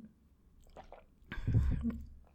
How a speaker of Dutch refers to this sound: Ik heb echt een enorme kriebel in mijn keel, dus ik neem even een slokje drinken.